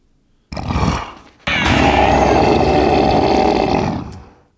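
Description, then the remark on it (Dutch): A growl from Momo, the small cartoon monkey creature, then a long, loud, bellowing roar from Appa, the cartoon flying bison, that holds steady for a few seconds before fading, with no talking. “Oh, en dat geluid is dat kleine aapdingetje wat hij bij zich heeft.”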